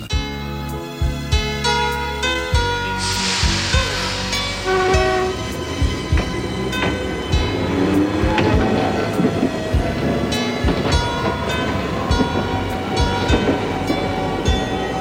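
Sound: train running on rails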